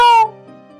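A single short, bright cat meow with a high, strongly tonal cry that cuts off quickly, leaving a faint lingering ring behind it. No talking.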